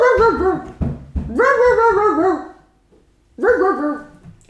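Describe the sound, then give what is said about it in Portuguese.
A voice imitates a dog barking, giving three loud, drawn-out, wavering barks with short pauses between them, the middle one longest. “E depois há uma página em que o cão ladra muito.”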